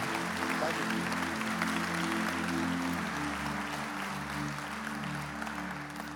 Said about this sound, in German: Lass uns Gott und diesen Leuten Applaus geben.